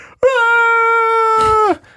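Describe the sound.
A voice imitates a Fulton balloon extraction in a video game, sending captured enemies away on a balloon, with one long, steady, fairly high-pitched wail. It is held loudly for about a second and a half, then dips and cuts off.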